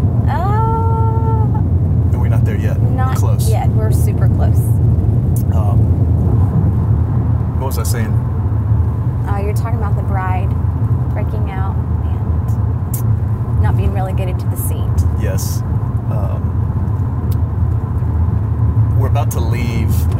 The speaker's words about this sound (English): I promise you, her adrenaline is rushing right now, and her heart is beating on the inside as she's revving up that engine and she is passing that vehicle.